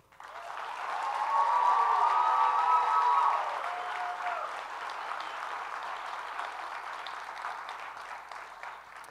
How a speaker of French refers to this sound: On peut les applaudir.